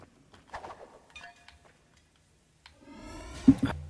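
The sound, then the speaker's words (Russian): A few soft, scattered clicks of gamepad buttons, quiet, followed by a louder burst of rattling handling noise near the end. “Слышно кликание клавиш на джойстике.”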